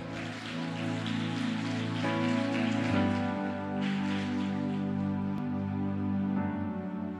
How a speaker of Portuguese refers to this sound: Aplauda o Senhor.